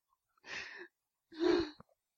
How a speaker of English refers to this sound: Oh, the, the laughing's making me cough.